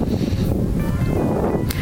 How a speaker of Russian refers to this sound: Слушайте, ну очень ветрено и холодно так по-осеннему. Ой, мы слышим. Мы, мы, мы слышим. слышим, на самом деле, вот такой ветер, что даже нам холодно стало.